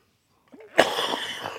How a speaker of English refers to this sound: …'s coughing up a lung, baby.